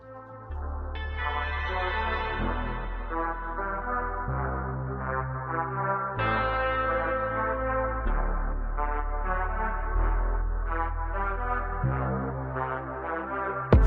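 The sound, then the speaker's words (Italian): An instrumental intro to an Italian rap song plays alone at steady volume: deep sustained bass notes shifting every couple of seconds beneath bright, echo-drenched synth chords, with no vocals yet. “scatenare un po' di panico Attenzione. Eh, fra le orecchie dei nostri radioascoltatori con la canzone … di … e …”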